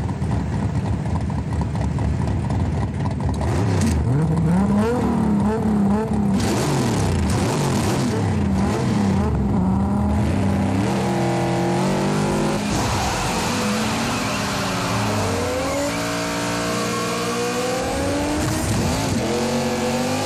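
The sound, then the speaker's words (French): Loud engines roar and rev hard as cars, including a Dodge Challenger, drag race side by side over a quarter mile toward a railroad crossing, pitch climbing through gear changes, with a brief tire squeal and some muffled voices underneath. “dans cette scène, on peut voir qu'ils sont à euh, coude, à coude dès le début et que on entend bien sûr les moteurs et tout.”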